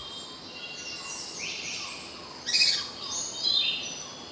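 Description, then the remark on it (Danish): High, thin calls of a Mexican spadebill repeat over about four seconds, with sweeping whistled notes and two sharper, louder bursts near the end, heard alone without any voices. “De til tider eksotiske fuglelyde var med Arabia Goldwinged Crossbeak sydafrikansk natravn Mexico spadenæb.”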